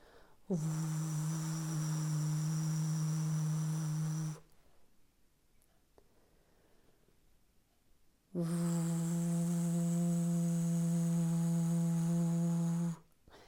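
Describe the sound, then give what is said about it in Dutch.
A voice makes two long, steady low humming drones, each about four seconds with a pause between, imitating the buzzing hum of a vacuum cleaner as a vocal warm-up exercise. Fairly loud, no talking. “Nou, daarvoor heb je bijvoorbeeld de oefening dat je het geluid maakt van een soort stofzuiger.”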